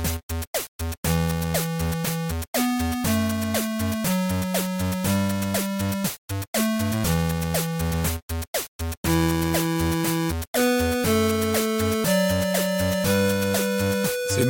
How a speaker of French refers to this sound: Alors l'influence c'est chiptunes, hein, évidemment.